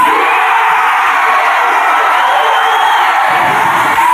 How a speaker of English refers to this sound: The ballroom here echoed to the sound of British jubilation.